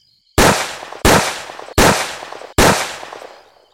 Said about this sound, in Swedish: En man med pistol springer mot Sofian Ahmed Barak. Han skjuter skott efter skott.